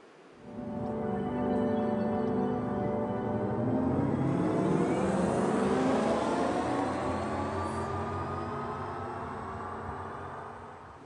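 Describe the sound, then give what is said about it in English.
A synthesized driving sound designed for an electric car, a potential sound based on sound genetics for electric cars: a layered, humming harmonic tone that climbs steadily in pitch as if accelerating, sustained and fairly loud for about ten seconds, with no talking. “And now I would like to show you how a potential sound based on the sound genetics for electric cars could sound like.”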